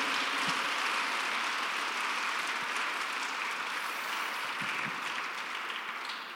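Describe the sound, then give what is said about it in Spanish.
An audience claps steadily, giving applause to the Lord, a dense wash of many hands at an even loudness that tapers off slightly toward the end, with no voices standing out. “Alguien dele un aplauso al Señor con todo su corazón.”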